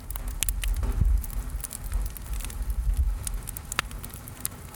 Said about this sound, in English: In this episode, we'll spend some time out at … camp and hear the voices of people sitting around the campfire. Just a note before we start all of this audio was recorded at the campfire so you'll hear bits and pieces from the environment